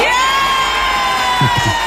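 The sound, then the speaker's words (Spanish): A party crowd at a 15th birthday party cheers loudly and steadily after someone announces 'se acabó el recreo', with many high voices shouting and whooping together in a dense, continuous roar, and a few brief low voice bursts near the end. “ahí va y dice, este, se acabó el recreo y la gente, aplaude.”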